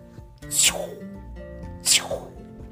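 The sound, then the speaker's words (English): A voice imitates two jetpacks blasting off toward a blimp: two quick, breathy whooshing bursts that sweep downward, about a second apart, fairly loud with nothing else around them. “That was the sound of them blasting off towards Dr.”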